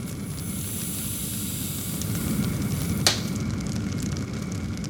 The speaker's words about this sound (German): Also ich gehe mal ganz kurz in den Feuerofen, um euch, euch das zu demonstrieren, wie sich das so anfühlte. Mega heiß, ich habe das Feuer siebenmal heißer gemacht und es war mega, mega krass